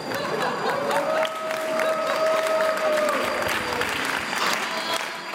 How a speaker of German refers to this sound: Und beklatscht kurz darauf ihre Teenager